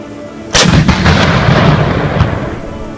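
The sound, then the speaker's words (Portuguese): A loud cannon blast from the deck gun of a surfaced German submarine attacking a Brazilian ship cracks out after a brief quiet, followed by heavy rolling rumble and a few fainter follow-up booms fading away. No voices. “Mas dessa vez o ataque não foi por torpedos, o submarino alemão, aproveitando a falta de proteção naquela região, emergiu para atacar o navio brasileiro com seu canhão de deck.”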